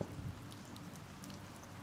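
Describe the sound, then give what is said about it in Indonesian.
Soft, steady patter of light rain, faint and even throughout, with scattered small droplet ticks and no voices. “Air mataku menetes bersamaan dengan doa yang mengalir melalui rintik hujan.”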